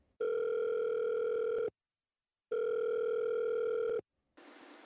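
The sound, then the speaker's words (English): A mobile phone rings on an outgoing call to the police: two long, steady electronic ring tones separated by a pause, followed by a brief hiss of line noise as the call connects. “Shakily, she reached for her mobile phone to call the police.”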